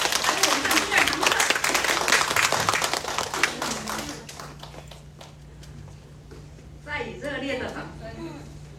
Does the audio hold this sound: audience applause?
yes